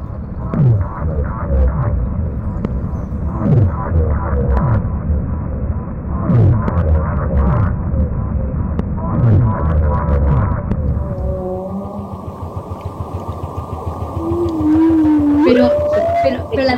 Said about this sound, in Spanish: Esos sonidos eran... Antiguamente no se sabía qué era. Claro. Son rarísimos. La ballena azul suena como un motor.